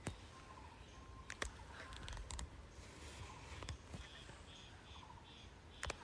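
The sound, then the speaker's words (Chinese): Various birds call softly over a steady hiss: faint, thin whistles and brief chirps at different pitches, with a few sharp clicks scattered through. No one speaks. “呼呼呼，嘿呼嘿呼，呼呼呼，嗯，呼呼，各式各样的鸟叫声，”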